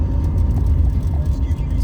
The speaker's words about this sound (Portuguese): Então, ó que o carro tá morrendo. Vou ter que desligar o ar-condicionado. esse é o meu carro, cara. É o carro que eu tenho que desligar o ar-condicionado para conseguir subir o morro. Senão ele não, não aguenta. Tá na segunda marcha aqui